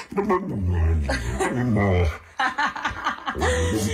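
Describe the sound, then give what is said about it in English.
An Italian dog in a video vocalizes in loud, drawn-out whining and yowling sounds that rise and fall almost like talking, with a person's voice speaking Italian and some chuckling mixed in. “But, honey, listen to this dog.”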